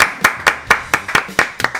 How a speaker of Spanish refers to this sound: Aplauso.